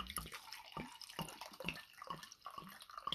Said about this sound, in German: Soll ich einschenken? Ja, nee, hm. klar, klar. du hast Geburtstag. Kannst gerne voll machen.